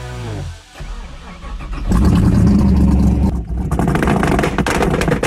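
A car engine cranks and catches, then roars into loud, throaty revving that holds strong with a brief dip before surging again, all without any voices.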